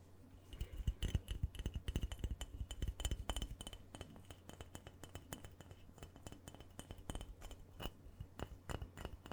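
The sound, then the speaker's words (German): A hard, non-plastic Christmas figure of a person, glass or ceramic rather than plastic, is tapped and clinked repeatedly, giving a dense run of sharp, bright clicks that thins out toward the end, with no talking. “Du hörst, auch das hier ist natürlich kein Plastik mehr.”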